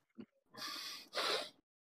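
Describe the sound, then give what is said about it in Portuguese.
A person imitates loud snoring with their voice: two long, rasping, rattling snorts in quick succession, after a brief quiet breath. “Depois o resto do grupo acorda com o ronco muito alto do ….”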